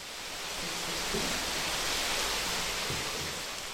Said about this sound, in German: Und das geschrotete Gerstenmalz aus Säcken in den Maischbottich geschüttet, in den der Braumeister bereits kaltes Wasser vorgelegt hat. 625 Kilo Malz für etwa 33 Hektoliter Bier.